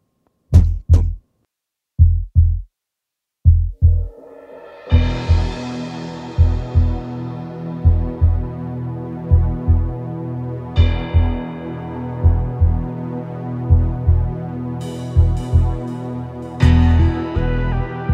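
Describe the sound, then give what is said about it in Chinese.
Deep bass guitar notes imitating a heartbeat thump in double pulses, alone at first, then keep a steady lub-dub rhythm as sustained music swells in over them. No one speaks. “像一开始的那个贝斯模仿的那个心跳的声音，听到一个嘣嘣。”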